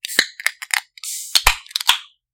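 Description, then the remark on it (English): A can of wine being opened at a desk: a run of sharp metallic clicks and cracks, then a brief rushing hiss of escaping pressure as wine sprays a little, followed by a few more crisp pops and clicks. No one speaks. “All right, glass in hand. Let's uh let's open these up.”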